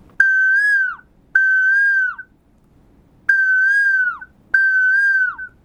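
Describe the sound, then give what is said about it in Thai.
A person whistles an imitation of an Asian koel's call for children: four loud, sustained notes in two pairs, each holding steady before dropping at the end, with no talking. “ผมก็จัดการเป่าเลยครับ นกชนิดนี้มันร้องแบบนี้ครับ”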